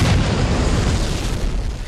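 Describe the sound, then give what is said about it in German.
A loud, sustained explosion with a deep rumbling boom that fills the low end, fading slightly as it rolls on, with no voices present. “Explosionen!”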